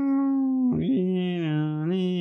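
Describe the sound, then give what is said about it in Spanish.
A person imitates all the sirens at once, police siren included, with a steady, loud vocal wail that dips and lurches in pitch partway through, then rises again, sustained without a break for about two seconds. “Mm, mm, ¡Todas las sirenas a la vez!”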